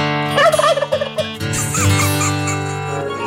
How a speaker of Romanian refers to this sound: Ai un pic de liniște. Să auzim un curcan.